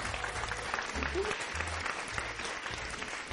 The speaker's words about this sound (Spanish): Entonces, un fuerte aplauso, por favor, para nuestras invitadas.